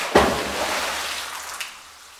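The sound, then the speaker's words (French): A thrown stone drops through a thin film of calcite (limestone) that forms on the water's surface: a sharp impact, then a dense, fizzing crackle of tiny pops that slowly fades, with one more small snap near the end. No talking. “Quand on jette une pierre dedans, ça fait tout plein de, de petits grésillements.”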